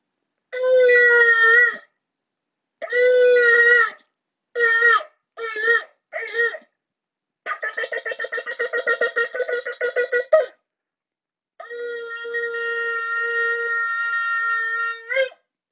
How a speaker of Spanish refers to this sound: Como cada día comenzamos con el toque del shofar, esos sonidos tradicionales que nos despiertan y nos convocan al encuentro de nosotros mismos.